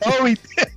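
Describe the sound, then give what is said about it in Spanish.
One sneeze in Colorado: a drawn-out voiced intake rising in pitch, then a short, sharp, breathy burst. It is fairly loud and comes on its own, with no talking around it. “Salud.”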